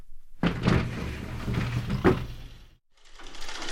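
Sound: door being opened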